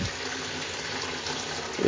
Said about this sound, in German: Ja, das ist jetzt Wasser. Mal gucken, wie das nachher aus, äh, sich anhören wird.